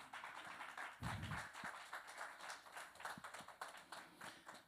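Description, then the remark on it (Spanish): An audience applauding the Lord during a sermon, a dense, steady wash of many hands clapping throughout, with a low thump near the start and no clear voices on top. “Dele un aplauso al Señor, aunque sea por eso.”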